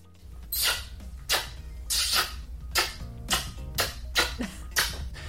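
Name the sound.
kissing sounds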